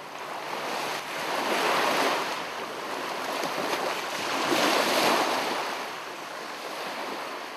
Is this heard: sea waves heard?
yes